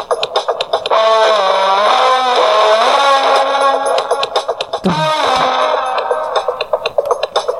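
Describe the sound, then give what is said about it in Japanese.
A loud, heavily distorted electric guitar plays sustained notes with bending, sliding pitches and a sharp dip partway through, thick and buzzing throughout with no voices. “これを何にするか。じゃあ、エレキにするうん。”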